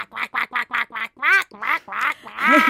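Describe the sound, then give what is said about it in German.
A duck quacks: a quick run of six short, evenly spaced quacks, then several longer, drawn-out nasal calls, loud and alone with no talking. “Das heißt Quark, Quark, Quark und Quark. Schnatter, schnatter, schnatter?”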